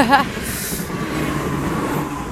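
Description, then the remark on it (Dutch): A train rumbles past at a railway crossing, a steady low roar with a faint high whine and hiss lasting throughout, briefly overlapping a voice at the start. “Wacht even, want er komt een trein voorbij.”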